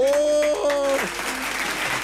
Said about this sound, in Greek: χειροκροτήστε! Μπράβο!